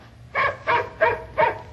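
A dog named Peanut gives four evenly spaced, whiny barks, fairly loud, with a faint whimpering edge to each and a low steady hum behind them.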